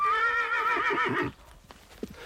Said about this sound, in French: Il regarde plus rapidement, plus longtemps et plus souvent que quand le hennissement est émis par le cheval qu'il vient de voir passer.